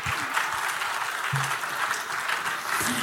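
Sustained applause from a group, a dense steady patter of many hands clapping at once, fairly loud and continuous throughout with no speech over it.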